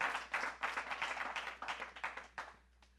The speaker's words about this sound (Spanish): No, mire, yo, no, si usted lo cree, dele fuerte el aplauso.